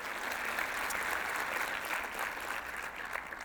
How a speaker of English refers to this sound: Now, isn't this a neat thing? Now, yeah, you can clap for that. That's cool. I get excited.